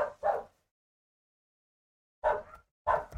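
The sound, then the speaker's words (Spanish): A dog barks four times in two quick pairs, sharp, with a short silent pause between the pairs and no one talking. “Perro, no mames.”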